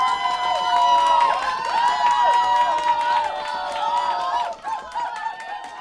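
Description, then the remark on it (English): A crowd cheers and whoops steadily for several seconds, many overlapping voices rising and falling together with scattered claps mixed in, dipping briefly near the end before carrying on. “This is where you like add woo cheering sounds.”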